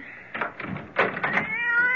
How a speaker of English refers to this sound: Oh, that damn cat! I've forgotten about her. Will you keep her in there away from me?